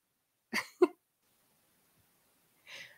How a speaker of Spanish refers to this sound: creo que se está muriendo del otro lado, no ha dejado de toser, me tiene desconcentrada.